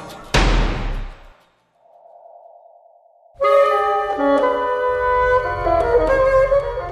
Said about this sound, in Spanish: Golpean la puerta.